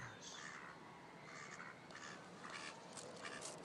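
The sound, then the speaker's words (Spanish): Ducklings at a lake quacking in a quick, overlapping series of short, bright calls over a steady background hiss, fairly faint, with no voices. “A los patos pequeños les pasa lo mismo que a las niñas.”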